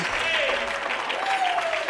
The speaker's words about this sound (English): Oh, come on, somebody clap your hands under the Lord right now. Praise God.